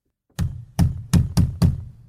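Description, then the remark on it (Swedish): Knuckles rap five times on a wooden table in a quick, uneven rhythm, each knock a solid thud with a short ring. No voices are heard. “jag kommer inte ihåg, men hör man om jag knackar här eller? Ja, testa. Bordet.”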